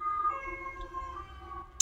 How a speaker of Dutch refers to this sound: Weer in ambulance.